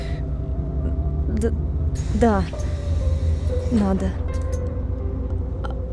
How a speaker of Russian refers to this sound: А автобус вот мой. Вот.